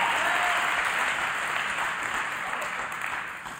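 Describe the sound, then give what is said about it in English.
A large audience claps, shouts and declares loudly and continuously, a dense roar of applause mixed with crowd noise that stays steady before easing off slightly at the end. “Come on, just one step more, shouting and clapping and declaring.”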